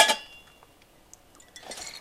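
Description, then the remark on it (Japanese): A sharp glassy clink at the start, followed by quieter scattered taps and a brief rattling clatter of glass near the end as a bottle of Kahlua matcha coffee liqueur is handled; no one speaks. “ちょっとねお酒も登場したりなんかしようかなさて2階にあるお酒といえばあこんなのあるじゃん”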